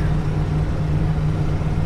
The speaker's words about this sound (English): driving up I 65 with a check engine light on, man.